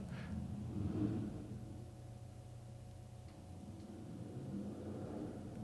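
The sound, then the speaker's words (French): A car engine revs outside downtown, a low throaty rumble that swells briefly near the start and then drones on steadily, with no voices. “c'est un, un char qui se fait aller les.”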